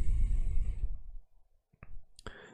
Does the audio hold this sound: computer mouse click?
yes